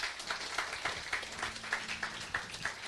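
Steady applause from a crowd for a church's Kids Church team, many hands clapping in a dense, continuous patter with a faint low hum underneath, holding at a moderate level throughout.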